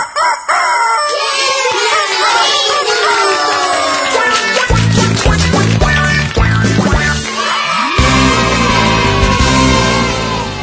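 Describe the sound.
A voice mimics a rooster's loud cock-a-doodle-doo over a bright, busy children's song, with a bouncy bass and drum beat kicking in partway through.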